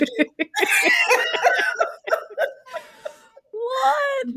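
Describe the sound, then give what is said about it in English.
A young girl vocalizes in the background in short, high-pitched bursts of babbling, whimpering and squealing, ending in a longer sustained cry-like sound; fairly clear and prominent, with no adult speech over it. “I don't know if y'all can hear, but my daughter's definitely like got opinions about this in the background.”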